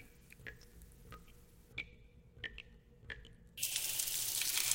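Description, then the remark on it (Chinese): Water drips one at a time, each a sharp, ringing plink that echoes in a silent, empty, narrow corridor, spaced unevenly and speeding up, then a steady hiss of running water takes over at the end. “忽然，我听到了滴水的声音，在这寂静而空旷的走廊之中，突兀的回荡着。”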